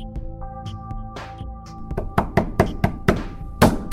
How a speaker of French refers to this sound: Bah, pourquoi elle s'ouvre pas cette porte Ok, bon, j'arriverai pas à l'enfoncer et puis ça ferait beaucoup trop de bruit. Je crois qu'elle nécessite une approche beaucoup plus subtile.